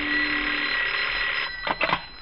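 A telephone rings loudly: one long, steady ring lasting over a second, then a couple of short, choppy bursts. No one speaks.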